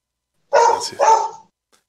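A dog barks twice in quick succession, two loud barks about half a second apart, with no talking around them.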